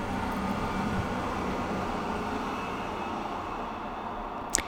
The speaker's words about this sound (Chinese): 哎，有火车。